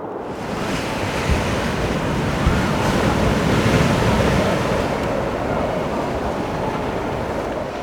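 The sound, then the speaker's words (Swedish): A loud, continuous roar of stormy sea waves pounding, with heavy wind buffeting the microphone throughout and no voices, during a full storm in the evening on the way to a lighthouse. “Du går dubbelvikt Dånet från havet är öronbedövande.”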